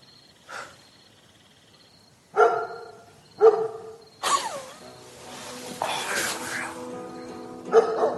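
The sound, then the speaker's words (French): A dog barks a few times in short, separated bursts, then a longer harsh, noisy stretch follows before one more bark near the end. “Je vais commencer par tuer ce chien puis on verra après.”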